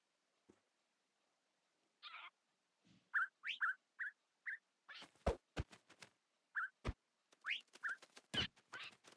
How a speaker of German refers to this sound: Oh, das wollte ich nicht, Papagei. So, jetzt habe ich auf jeden Fall hier ein paar Papagei gespawnt.